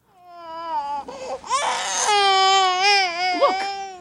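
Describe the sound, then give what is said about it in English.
An infant being examined in a hospital emergency room wails loudly and continuously for about four seconds, the shrill cry rising and wavering with brief catches of breath, unaccompanied by talk. “He's still crying.”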